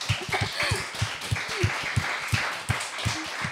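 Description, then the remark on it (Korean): Applause from a small group for a memorable saying: steady, fairly quick rhythmic claps, moderately loud, running the whole time with a few brief vocal sounds mixed in. “아 오늘 명언입니다. 박수 주십시오.”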